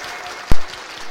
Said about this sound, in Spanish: Los huevos, al romperse, están huecos, vacíos, pero del interior de cada uno brotan aplausos, tantos que pareciera que los metieron a presión.